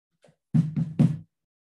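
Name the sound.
knocking on a door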